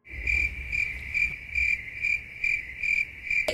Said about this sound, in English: crickets right there. And yes, and crickets.